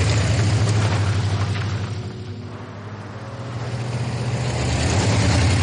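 A car engine hums steadily with a low rumble as the car pulls out onto the road, the sound dipping briefly in the middle before swelling back up. No one speaks.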